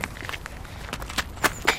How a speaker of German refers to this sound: Die beiden rennen voller Elan los, bis sie den Canfeldpark erreichen.